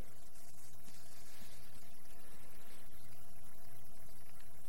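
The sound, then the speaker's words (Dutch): Water pours steadily from a bucket for several seconds, filling containers with about 600 litres bucket by bucket rather than from a tap or hose, a continuous splashing rush of liquid with no voices. “Dit gaat emmertje voor emmertje.”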